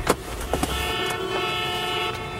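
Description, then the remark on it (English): Traffic noise on a busy New York City street, with a car horn sounding in a sustained blare over the steady rumble of engines and a few short clicks and knocks. “and then Mercedes ditches her in the middle of a New York street, which has some incredible loop group.”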